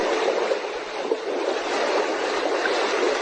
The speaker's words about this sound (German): Ich drücke mal wieder die Taste. und es plätschert. Augen zu, Meeresbrandung, im Urlaub.